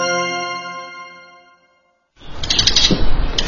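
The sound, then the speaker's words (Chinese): A ringing chime fades away into a brief silence, then a dark yellow wooden door at the Shijia Hutong Museum is pushed open with a creaky, scraping rush of noise that swells and lingers. “推开暗黄色的木门，迈过并不高的门槛，听着喳喳作响的清脆鸟叫声，史家胡同博物馆就在眼前了。”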